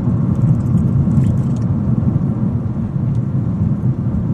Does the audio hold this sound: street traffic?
yes